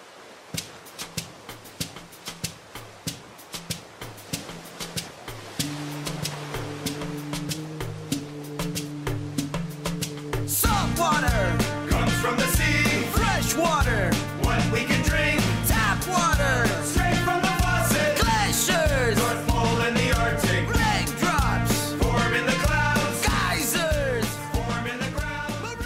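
A song builds from a steady percussive beat; a bass line joins after a few seconds, then the full band kicks in loudly about halfway through with dense, rhythmic instrumentation.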